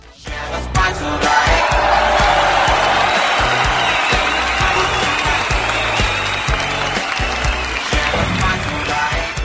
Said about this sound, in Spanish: Fuerte el aplauso, por favor, público, para Aide Villarreal.